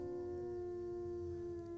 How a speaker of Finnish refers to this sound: Ulvomalla susilauman jäsenet pitävät yhteyttä toisiinsa. Ulvonta toimii myös varoituksena tunkeilijoille. Se myös helpottaa yksinäisiä susia elämänkumppanin etsinnässä.